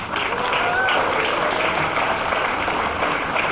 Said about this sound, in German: Hallo und herzlich willkommen zurück zum Chaos Radio 253, live aus dem Seelchen Berlin. Könnten wir noch mal einen Applaus für die letzte halbe Stunde haben?